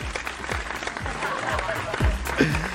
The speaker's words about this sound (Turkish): Ee, yeniden bölümümüz var ve bu yeniden bölümünde biraz e, kendimi alkışlayacağım, biraz gururlanacağım.